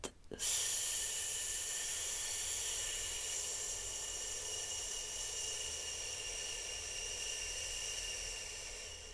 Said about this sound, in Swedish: Det är att andas ut med ett långt S-ljud det vill säga andas in djupt och sen andas ut långsamt medan du gör ett S-ljud. Så in och ut.